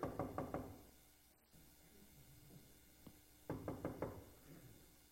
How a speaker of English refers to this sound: and they look over in the shadows, and there in the shadows is this man down on his knees with a hammer and a chisel, and he's chiseling away at the headstone.